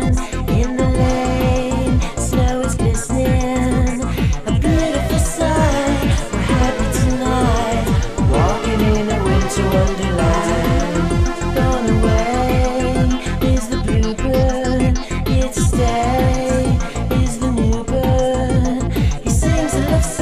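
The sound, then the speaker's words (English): A song plays loud and full throughout, with a steady, driving drum beat pulsing under layered instruments and rich sustained harmonies, no talking over it. “All right, let's uh, move on to a song that I do think rules.”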